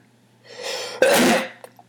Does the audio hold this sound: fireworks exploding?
no